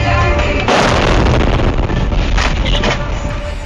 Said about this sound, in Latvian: Zināms, ka triecienā Dnipro ievainoti vismaz 14 cilvēki. Sprādziena brīdi video reģistratorā fiksēja arī kāds autovadītājs.